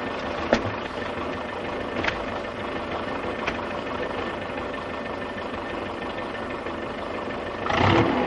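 A tractor engine runs steadily with a low, rumbling idle, a few sharp clanks along the way, and the engine grows louder near the end as the tractor starts off and drives away. Nobody speaks.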